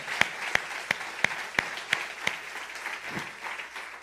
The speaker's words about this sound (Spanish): Le damos un aplauso al Señor por su amor. Damos un fuerte aplauso al Señor por su amor.